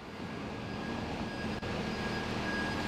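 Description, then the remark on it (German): A garbage truck's heavy engine rumbles steadily on a street in Cologne as it collects the black residual-waste bins, a dense low drone with a thin, high mechanical whine running through it and a brief dip partway through. No one speaks. “Ihr könnt es vielleicht schon erahnen, es ist die Müllabfuhr.”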